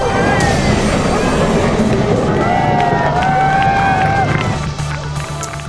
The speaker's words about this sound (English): Big cheers after nearly 10 hours. A BC ferry that smashed into a dock at the Langdale terminal and became stuck has just been freed thanks to a couple of tugboats.